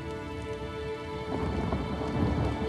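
Steady rain pours down with a low rumble of thunder building beneath it, a continuous stormy wash that swells louder partway through. No voices are heard.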